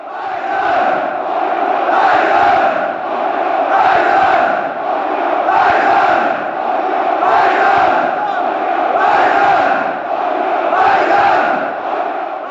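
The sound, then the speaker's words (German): A dense football stadium crowd, recorded at the last home match, roars and chants in steady waves, swelling roughly every two seconds in a rhythmic, loud chorus with no single voice standing out. “Und ihr habt, äh, das ist übrigens auch eine Besonderheit, wir jetzt nicht, weil ich das erst im Nachhinein immer reinschneide, gerade Stadionatmode gehört, die tatsächlich aus dem letzten Heimspiel stammt”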